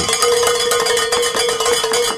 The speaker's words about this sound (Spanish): Bueno, vamos a, tenemos la buena noticia, vamos a tocar las campanas porque se ha logrado la meta